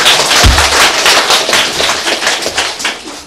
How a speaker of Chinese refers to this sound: 啊，鼓掌一下嘛，那么那么严肃干嘛？